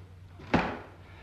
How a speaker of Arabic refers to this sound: آه بس امرهم يقفلوا الباب طلبك مجاب اقفلوا الباب